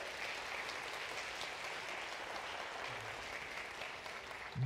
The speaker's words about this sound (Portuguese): Pode aplaudir o Senhor.